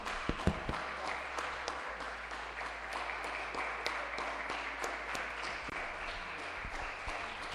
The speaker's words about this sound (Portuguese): Você pode aplaudir a Jesus por uns 5 segundos?